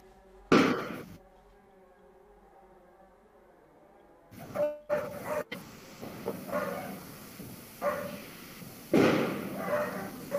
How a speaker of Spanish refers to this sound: ¿Está todo bien ahí? Sí, son cohetes. Ah, bueno. Por lo regular en siempre, siempre lanzan cohetes.